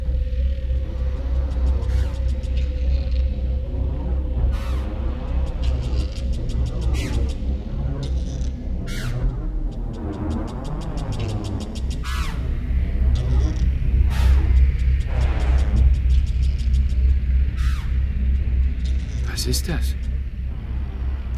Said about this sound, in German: Klingt wie eine Maschine, die läuft. Ja. Wie eine Steinbohrmaschine. Aber heute wird nicht gearbeitet. Heute ist Feiertag. Maschinen kennen keine Feiertage. Klingt ein bisschen unheimlich, finden Sie nicht? Scheint näher zu kommen.